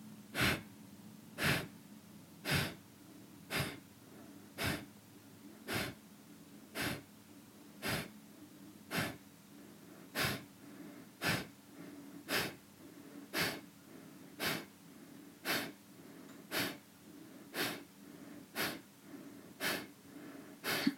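Forceful, rhythmic nasal exhales of a kriya breathing exercise pump out at a steady pace of about one sharp exhale per second, driven by diaphragm contractions after a three-quarters-full inhale through the nose, clear, with no talking over them.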